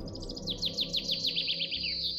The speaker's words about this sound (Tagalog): Narinig mo yun? Ano? Bakit parang naririnig ko yung huni ng ibon na yon? Siyempre, nasa probinsya tayo, maraming ibon dito. Hindi eh, parang kakaiba siya eh.